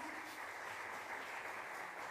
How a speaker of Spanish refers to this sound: Denles un aplauso de bienvenida al club.